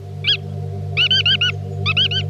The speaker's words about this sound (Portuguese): Entre as muitas aves aquáticas que por aqui andam está o fuzelo